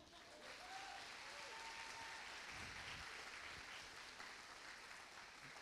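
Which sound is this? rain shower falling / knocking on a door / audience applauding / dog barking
audience applauding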